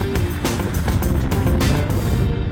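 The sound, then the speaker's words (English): The engine of a 1959 Miller Meteor Futura Duplex hearse, an exact replica of the Ecto-1 from the movie Ghostbusters, rumbles steadily, a loud, continuous low growl with slight pulsing variations and no voices. “It is a 1959 Miller Meteor Futura Duplex.”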